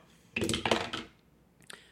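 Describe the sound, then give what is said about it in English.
Dice clatter and tumble across a hard surface in a burst of sharp clicks lasting under a second, followed by a brief pause and a couple of faint final taps as they settle; the roll comes up a five. “I'm actually going to roll to see if your phone is even still functional.”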